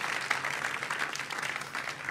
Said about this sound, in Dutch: Zullen we God een applaus geven daarvoor? Hij heeft een wonder gedaan.